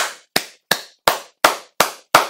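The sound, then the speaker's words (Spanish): A single person claps their hands about seven times in a steady, evenly spaced rhythm, each clap sharp and fairly loud with a brief ring-out, and no talking, applauding a statement made by President López Obrador at his morning press conference. “aplaudo, aplaudo esta eh, declaración que hizo usted en las mañaneras por primera vez en tres años.”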